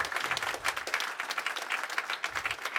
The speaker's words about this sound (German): Ich darf auch alle im Livestream herzlich begrüßen. Vielleicht begrüßen wir sie mit einem fetten Applaus.